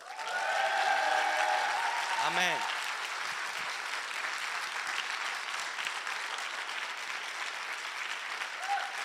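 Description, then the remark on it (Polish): An audience breaks into loud, sustained applause for Jesus, a dense wash of clapping that holds steady for several seconds, with a brief spoken word rising over it early on. “Więc słuchajcie, teraz tak w pakiecie za wszystko, co do tej pory się wydarzyło, oddajmy mocno klaski Jezusowi.”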